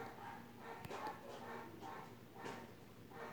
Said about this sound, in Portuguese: Os cachorros tá latindo.